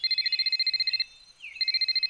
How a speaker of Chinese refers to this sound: 嗯，电话响了，是谁呀？